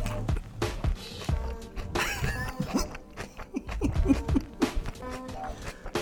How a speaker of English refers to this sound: … is chewing over the microphone